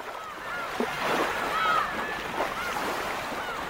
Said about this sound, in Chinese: 天哪，天哪！我居然看到了大海，哗哗的响个不停的大海。